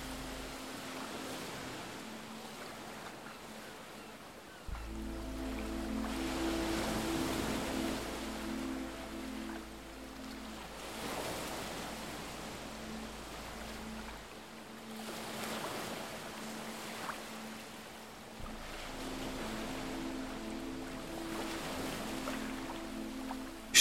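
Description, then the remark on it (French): Ocean waves break and wash ashore in slow, rolling surges, a steady rush of surf rising and falling, with a low droning hum beneath for a stretch. No voices. “Petit à petit, le rythme de votre souffle s'harmonise avec celui des vagues.”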